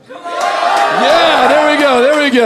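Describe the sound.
An audience practicing yelling shouts together in one loud, sustained yell that fills the space, many voices blending into a single roar, with a man's voice speaking over it.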